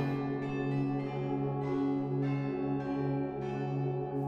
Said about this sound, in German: Moment mal. Ich höre etwas. Du auch? Da, die Glocken. Die waren doch gerade noch nicht da.